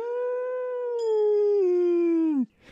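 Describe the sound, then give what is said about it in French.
A single long howl from a female wolf, loud, holding a steady mournful pitch that sags slowly before breaking off abruptly near the end, with no voices. “Elle s'était déjà remise en position d'attaque et s'apprêtait à renouveler son assaut. Et puis, elle prit conscience que j'étais comme elle. Elle se ravisa et se mit à hurler.”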